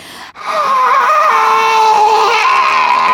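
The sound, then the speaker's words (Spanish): A voice imitates an eerie, drawn-out scream heard inside a crypt during a film shoot: a loud, sustained wailing cry held for about three seconds after a sharp intake of breath, unbroken. “Y antes de que el director dijera acción, los que estábamos ahí, todos, todo el crew, escuchamos dentro de la cripta cómo se escucha un grito.”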